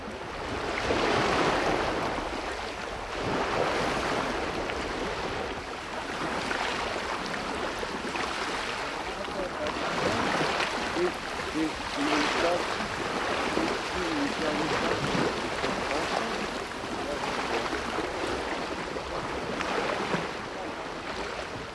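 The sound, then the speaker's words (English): Black waves with white foam wash and slap in over the edge of sea ice in steady, repeated surges, a broad rushing wash of water that swells and recedes every few seconds, continuous, with wind noise underneath, as drifting snow blows across the ice around midnight near Svartenhuk. “Black waves with white pearly foam begin beating in over the ice edge.”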